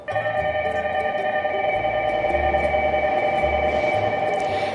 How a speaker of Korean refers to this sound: 제가 타야 하는 열차가 들어오고 있었는데요.